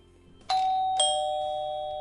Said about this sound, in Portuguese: Nisso, a campainha toca.